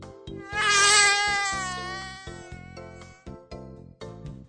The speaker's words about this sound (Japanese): おならじゃないよすごい長い、スカシッペとかじゃないよ蚊ですか。ただ、効果音にするとこうなっちゃうんだよね。なんかね、その嘘っぽいところがツッコミ満載で楽しいの。